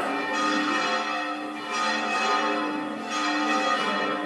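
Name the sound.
church bells ringing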